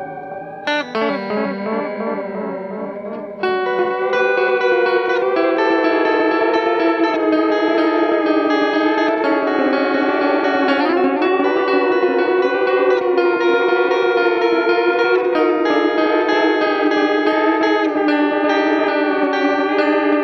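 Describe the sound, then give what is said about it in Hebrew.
A dense, droning wall of effected tones from an analog delay pedal builds into a loud, sustained wash, with pitches slowly warping and smearing as the depth and feedback are pushed and the delay runs toward self-oscillation. There are no voices. “וכשאתה משחק בעומק ופידבק, ואתה נכנס לאוסולציה, אתה גם מקבל דברים סופר מיוחדים.”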